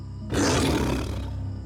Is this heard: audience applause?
no